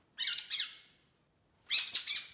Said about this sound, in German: Über 1800 Vogelarten, zum Beispiel der madagaskar rotschnabelbühlbühl